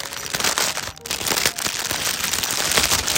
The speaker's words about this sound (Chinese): 听一下那个声音，听 一下那个铃铛的声音。 其实隔着袋子已经能听到了，我现在把它包进袋子里